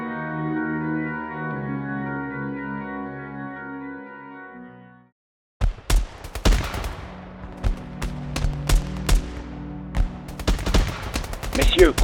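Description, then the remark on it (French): Steady tonal music plays for about five seconds, then after a brief silence a sniper fires a rapid, irregular string of sharp, loud rifle shots in succession over a low rumbling background. “Suite à quoi On put entendre le sniper enchaîner les tirs.”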